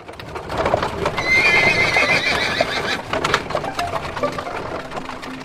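A horse whinnies loudly with a long, wavering neigh while hooves clip-clop steadily, the clattering footsteps continuing after the call fades.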